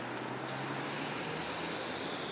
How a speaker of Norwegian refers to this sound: Jeg kan faktisk høre vannet renne i strie strømmer der hvor du står.